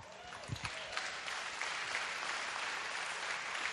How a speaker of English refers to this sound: They clap for that.